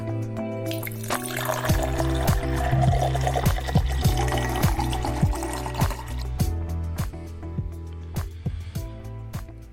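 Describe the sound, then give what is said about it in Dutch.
Whisky is poured into a glass: a steady, gurgling pour with bright splashes and small clinks, lasting nearly ten seconds at moderate volume, with no one talking. “Schenk je favoriete glas in en luister met ons mee.”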